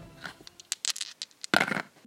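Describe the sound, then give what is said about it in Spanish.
Dice rattle with a string of small, sharp clicks, then tumble onto a surface in a louder, brief clatter. Fairly quiet, with no voices. “A lanzar los dados y cayeron en”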